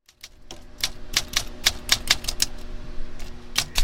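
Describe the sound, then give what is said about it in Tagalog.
Sharp, irregular mechanical clacks of a typewriter being tapped and worked on in a small basement typewriter shop lined with shelves of typewriters and spare parts, about a dozen strikes in quick uneven bursts, with a faint low hum underneath and no voices. “There are shelves on either side stacked with typewriters and spare parts. He was working on a project next to his cat when I arrived.”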